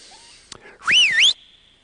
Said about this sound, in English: And putting myself into it, I decided I would use what I call my coaching whistle. It goes a little like this.